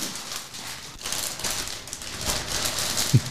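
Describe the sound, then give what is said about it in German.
Steady crinkling and rustling of wrapping as a bottle of spring wine is unwrapped and opened, a continuous crisp texture with small surges and a brief thump near the end, with no voices. “Es ist schön, wie es so raschelt.”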